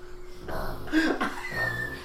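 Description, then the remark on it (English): A pug named Mr. Pickles snorts and snuffles in a few short, raspy bursts, moderately loud, with a wheezy, throaty quality; no one talks over it. “Don't worry, that's just the dog.”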